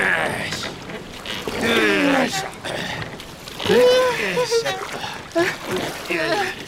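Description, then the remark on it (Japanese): Soft, steady sloshing of water as a small inflatable boat is rowed across the sea toward a boxy wooden ship, with paddle splashes mixed into a constant wet wash, while people talk over it throughout. “もっとこげ博士便利カーにインフレータブルボート積んでたんですね”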